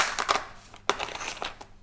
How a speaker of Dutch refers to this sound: Eh, ik prik nu door de kip. 1, 2. Maar dan uh, 1, 2.